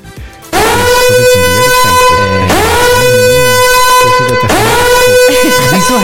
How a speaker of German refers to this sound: ich habe kurz meinen Alarmknopf müssen drücken.